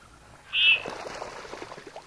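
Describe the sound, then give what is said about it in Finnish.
A male common goldeneye gives a single short, sharp, loud courtship call while displaying to females by jerking its neck, followed by a low, steady wash of background noise with faint scattered sounds. “Esittelevät naaraille erinomaisuuttaan nakkelemalla niskojaan ja narskauttelemalla kuuluvasti.”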